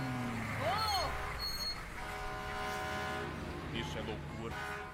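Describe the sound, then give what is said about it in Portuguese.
A fire truck horn honks in loud, brassy blasts, with a sharp rising-and-falling tone early on, followed by sustained droning horn tones over a rumbling street background. “O que é um carro de bombeiro? Nunca vi.”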